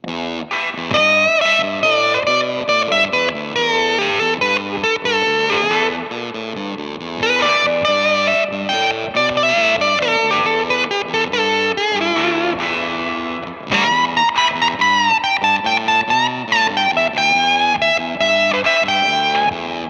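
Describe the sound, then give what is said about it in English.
A buzzy electric guitar distorted by a fuzz pedal, with a 1960s psychedelic tone, lays down a steady riff while a second saturated guitar solos over it and a rhythm guitar plays occasional hits, loud and continuous, with a brief dip around the middle. “You're going to hear the main motif that all these examples are based on. In the background, it's playing a riff as there's a solo on top of it”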